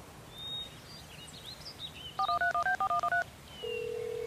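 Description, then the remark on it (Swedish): A quick run of about eight telephone keypad dialing tones, evenly spaced beeps, followed by a steady ringback-style tone at the end over faint background noise, as someone phones friends to invite them to a birthday party. “Ja, du, jag ska ringa mina kompisar så kanske de vill komma på födelsedagskalaset. Ja, ring till dem. Här är telefonen.”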